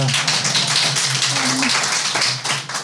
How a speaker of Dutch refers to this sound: Hoor ik een applaus? Dat is een eenzaam applaus. Of, of komt er meer applaus voor dit?